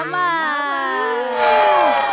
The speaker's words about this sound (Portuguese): Palmas!